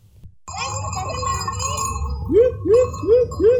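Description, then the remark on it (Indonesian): A loud bell, rung by a spring keeper at Wendit tourist park in Malang, East Java, to call the park's long-tailed macaques, rings out with bright, lingering metallic overtones, followed by four quick, evenly spaced swooping tones. Nobody speaks. “Suara lonceng nyaring terdengar di Taman Wisata Wendit. Lonceng dibunyikan soleh penjaga sendang Wendit untuk memanggil satwa penghuni objek rekreasi di Malang, Jawa Timur itu.”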